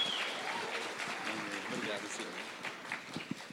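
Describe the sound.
A church audience bursts into steady, dense applause to welcome a pastor, many hands clapping at once in a continuous wash of sound, with scattered voices and cheers mixed in throughout.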